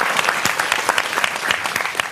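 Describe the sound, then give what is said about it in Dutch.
An audience applauds, a dense, steady patter of many hands clapping at an even, sustained loudness throughout, with no voices standing out. “Ehm, ja, groot applaus.”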